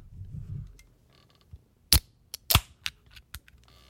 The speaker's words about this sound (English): Hold on, let me let me let me get a let me get a second uh... refreshment. You want to cough over the can crack.